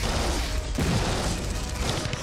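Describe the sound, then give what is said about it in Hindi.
Dense, indiscriminate gunfire from soldiers at a battlefront, firing on enemies, crackles nonstop, shots blurring into a loud, chaotic barrage with a heavier burst partway through, and no voices. “ऐसी स्थिति में भी नायक जदुनाथ सिंह घबराए नहीं साथियों का मनोबल बढ़ाते रहे और मोर्चे पर बरसाते रहे दुश्मनों पर अंधाधुंध गोलियां”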